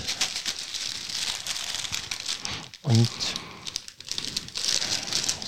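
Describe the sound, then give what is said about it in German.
Steady crinkling and rustling of a silver, non-transparent foil-like plastic snack bag being pulled out of its package and handled for several seconds, with a brief spoken word breaking in midway. “Einen silbernen Plastikbeutel. Den wir rausziehen können.”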